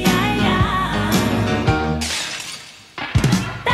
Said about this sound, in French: C'est de la vaisselle qui était dans les studios où elle enregistrait à Londres, qu'elle cassait et donc qu'elle échantillonnait